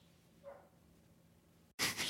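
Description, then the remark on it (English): A dog lets out one loud, harsh bark right at the end, after a stretch of faint background hum and a sudden brief silence. No one speaks. “a dog with the it. bark at the end.”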